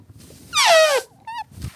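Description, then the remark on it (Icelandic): A voice mimics an elephant's trumpet with a loud, bright, wavering cry that slides downward in pitch, followed by a shorter, steadier high note after a brief pause. “ég veit ekki hvernig ég gerir þetta hljóð svona, svona hvernig gerir maður, getur þú gert svona fíla hljóð fyrir mig”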